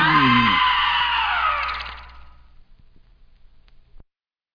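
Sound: screaming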